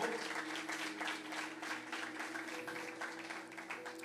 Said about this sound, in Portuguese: Diga eu recebo e dê um aplauso ao Senhor Jesus. Pode ser mais forte esse aplauso ao Senhor.